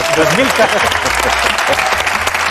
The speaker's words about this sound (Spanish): ¡Un aplauso para él!